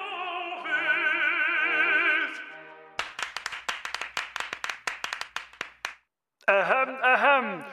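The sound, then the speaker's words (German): An audience claps in a brisk, uneven burst of sharp slaps for about three seconds, set between stretches of a wavering, vibrato-laden singing voice performing opera hits. “Vielen Dank, liebes Publikum.”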